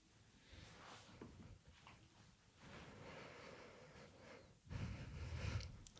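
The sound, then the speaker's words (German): Heavy, noisy breathing fills the pause: several rough breaths and puffs, growing louder and harsher near the end, with no talking. “Lassen wir das drin, einfach so minutenlang schnaufen.”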